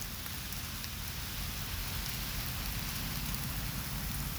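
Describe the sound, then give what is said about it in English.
Steady rain patters down, a dense hiss of drops striking a surface, with a low rumbling wash underneath and no voices. “Enjoy the pitter patter the drops. of the rain.”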